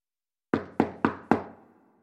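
Four firm knocks on a wooden door one morning, in quick, slightly uneven succession, clear, each with a short resonant decay and no voices around them.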